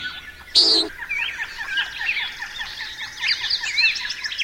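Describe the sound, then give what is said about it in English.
A single brief, loud whooshing boom from a bird's primary wing feathers as it swoops back up at the end of a display dive toward the ground, advertising for mates, cuts in near the start, over a steady, busy chorus of chirping and twittering birds that continues throughout. “And at the last minute, they stick their wings out and they whoosh back up using their wings and they're making that booming sound with the uh, primary wing feathers.”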